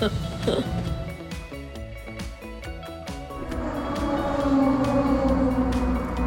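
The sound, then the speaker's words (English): Racing cars in the first free practice session of the European Le Mans Series roar around Paul Ricard Circuit in sunshine, their engines droning and climbing in pitch as they pass, continuous and moderately loud, with indistinct voices mixed into the background. “Well, as you can hear in the background, Paul Ricard Circuit, as the cars are out on track for the first free practice session for the European Le Mans series.”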